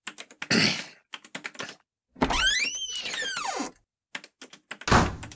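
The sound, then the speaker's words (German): Rapid keyboard-like clicking runs throughout, broken by a long rising-and-falling creak and then a loud door slam near the end. No one speaks. “knall doch nicht immer so die Tür.”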